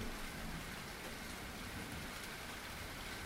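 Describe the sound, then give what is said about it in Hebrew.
Steady rain pours down in a dense, even hiss with a soft low rumble beneath, continuous and fairly loud throughout, with no voices, depicting iron vapour that cools into liquid and falls as iron rain on the dark side of a strange world. “ובכן, אדי הברזל מתקררים, הופכים לנוזל ויורדים בתור גשם. גשם מברזל.”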